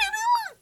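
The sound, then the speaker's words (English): A voice briefly mimics the sped-up chipmunk-mode playback of a mini tape recorder: one short, squeaky, high-pitched sound that rises and then falls in pitch, heard alone. “And you could record and play things backwards, play things forwards, play it in like chipmunk mode.”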